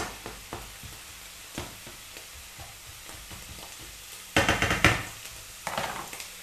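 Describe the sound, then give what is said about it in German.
Onions and chanterelles sizzle in a pan with a steady crackling hiss, broken by a few louder bursts of stirring and scraping near the end. No one speaks. “Dann warten wir eigentlich nur noch darauf, dass die Zwiebeln noch ein bisschen angerösteter ausschauen”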